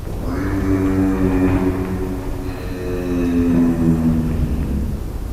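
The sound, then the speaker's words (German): A giraffe's low, droning hum at night, picked up by a recording device hung at the giraffes, steady and fairly loud, with a rich buzzing tone that swells twice over several seconds and wavers slightly in pitch, with no other sounds. “Ich habe am Computer anhand der akustischen Struktur gesehen, okay, das sieht aus wie ein Tierlaut.”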